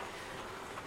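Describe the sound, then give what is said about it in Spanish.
A shopping cart rattles steadily as it rolls, a continuous clattering wash of metallic noise at moderate volume, with no voices present. “pues con un microfonito, mi móvil y de fondo pues un, un, hilo musical, un carro también como que suena así, ¿sabéis?”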